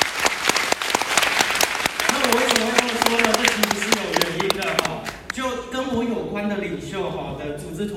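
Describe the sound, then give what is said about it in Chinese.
A live audience at a Yilan Success Academy gathering breaks into warm, dense applause for the leaders present, many hands clapping loudly. After about five seconds the clapping thins out and a voice rises above it. “可是，在宜兰成功学院现场的伙伴，我想恭喜大家的原因，是因为在宜兰成功学院的现场的领袖，都是我最喜欢的领袖，陪伴大家一起学习，所以先给他们一个热烈掌声。”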